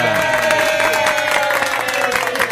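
Loud, dense electronic crowd applause of the Tabajara, played live: a steady wash of many hands clapping with cheering mixed in, filling the whole recording without a break. A faint sustained tone runs underneath.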